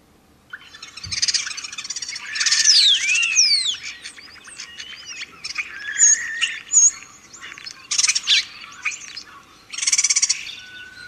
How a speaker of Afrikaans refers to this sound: Dan het ons natuurlik die Europese spreeu wat Cecil John Rhodes gebring het en hy klink